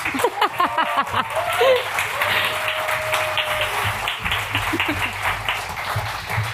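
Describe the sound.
Steady audience applause fills the whole stretch, a dense wash of many hands clapping at even loudness, with cheerful voices and a brief whistle-like tone rising through it.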